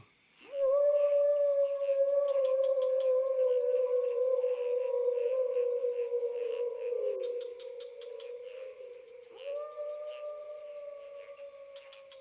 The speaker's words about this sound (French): En quelques minutes, ils semblent déjà partis loin, et quelques hurlements, tel un cri de ralliement, se font entendre.